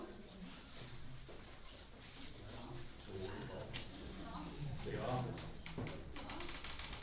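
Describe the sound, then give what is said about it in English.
A door swings shut with a few light taps and soft clunks of the latch and handle, over a steady murmur of voices. “can you close that door for me?”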